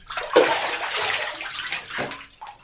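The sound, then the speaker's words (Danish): Water splashes and sloshes loudly in a bathtub for a couple of seconds, a burst of churning movement as Archimedes hurries up out of the water, busy with dripping at the end. “For nu skynder Archimedes sig op af badekarret.”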